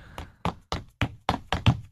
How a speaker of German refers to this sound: So, jetzt gehe ich rein über meinen Parkettboden zum Schreibtisch.